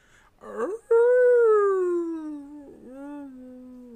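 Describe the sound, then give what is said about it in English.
A voice imitates a wolf's howl: a brief rough yelp, then one long, loud, wavering howl that slowly sinks in pitch, catches briefly, and trails off in a fading, mournful tone. “Okay, that sounded like a dying wolf.”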